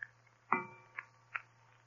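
A clock on a mantel strikes once with a bright, ringing chime that slowly fades, while soft ticks sound before and after it, with a faint low hum.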